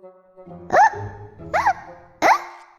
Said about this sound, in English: Pete stands on one foot. Pete still has the hiccups.